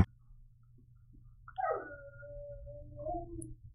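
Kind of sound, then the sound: animal, dog howling outside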